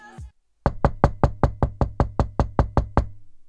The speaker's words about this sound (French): volume à fond dans ma chambre en étant plus jeune à tel point que mes voisins venaient toujours toquer chez moi pour se plaindre euh, que notre chien faisait trop de bruit.